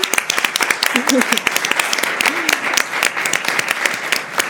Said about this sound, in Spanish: qué bueno. un aplauso